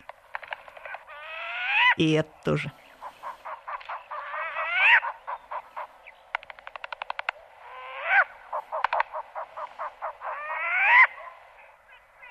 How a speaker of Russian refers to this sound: О, это тоже сова? Это тоже болотная сова. У них есть разные вот такие крики. Уханье и переливчатый немножко крик.